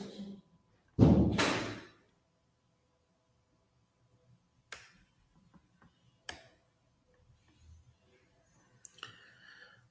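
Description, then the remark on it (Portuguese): A door swings shut with a solid thud, followed by a few sharp metallic clicks and scrapes as a key turns in the lock. “Não, fecha com a chave.”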